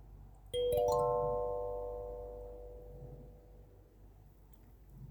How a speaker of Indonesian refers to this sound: Panggilan telepon berbunyi.